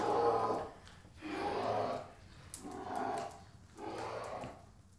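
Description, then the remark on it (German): A bear growls in four deep, rumbling bursts at a steady rhythm, each about a second long, fairly loud with brief pauses between, and no talking. “Warum bringst du ihn lebend hierher und lässt ihn am Ende wieder laufen.”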